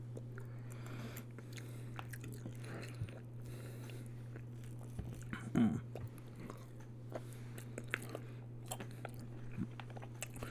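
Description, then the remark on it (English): Someone chews a thick piece of chicken, with irregular soft, squishy bites and small crunches over a steady low hum, and a brief murmured hum of approval midway. “It's a very thick chicken.”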